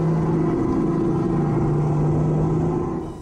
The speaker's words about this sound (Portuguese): de pistas de kart é, são barulhentas, né? mas não é o que acontece lá porque ele é elétrico, mas ele tem uma velocidade boa, um circuito bom e você ouve como se estivesse acelerando mesmo um, um, carro de kart, enfim, tradicional.